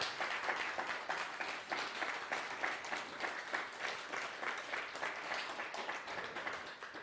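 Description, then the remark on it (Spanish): Sustained audience applause welcoming everyone, with dense, overlapping claps that keep a steady, moderately loud level for several seconds without any voices on top. “Bueno, pues ahora sí, fuerte aplauso, por favor, bienvenidos, bienvenidos todos, todos.”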